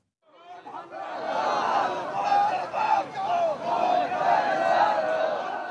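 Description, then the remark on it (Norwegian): A large crowd of protesters in Islamabad, Pakistan, chants loudly together against drone strikes, their massed voices rising in sustained, phrase-like swells with short dips between them, lasting several seconds. “Og i Pakistan så protesterer mange mot denne krigføringen på deres territorium.”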